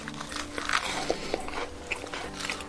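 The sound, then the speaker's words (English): Crunching as someone bites into a crisp fried lentil donut of urad batter spiced with pepper, asafoetida and salt, a round disc with a hole fried light golden brown, with several sharp crackles scattered over a few seconds of chewing, no voices. “shaped into a round donut like disc with a hole in the center, and fried to a light golden brown.”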